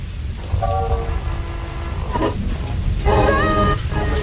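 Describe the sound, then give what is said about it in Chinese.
A steady, loud wash of falling rain fills the whole recording, with a few short, wavering tonal calls rising over it in two bursts. “哎，又下雨了。”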